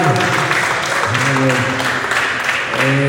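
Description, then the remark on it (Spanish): An audience at a church service claps loudly and steadily for the full few seconds, applauding for the Lord in the morning, a dense wash of applause mixed with raised voices calling out and cheering over it. “un aplauso fuerte al Señor en esta mañana.”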